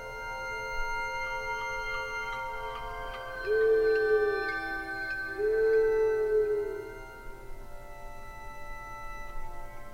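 An owl-hooting sound effect: two drawn-out low hoots a second or so apart, over a steady humming musical backdrop with faint ticking.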